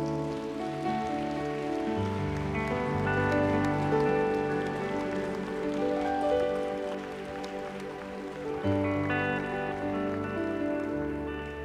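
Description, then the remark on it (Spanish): An audience applauding Jesus loudly, a dense, steady patter of many hands clapping continuously over sustained organ-like music chords, staying loud throughout with a slight dip near the end. “Así que apláudele fuerte a Jesús.”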